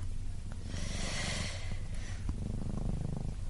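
A cat purring steadily, a low continuous rumble with soft breathy rises and falls as it inhales and exhales, with no voices.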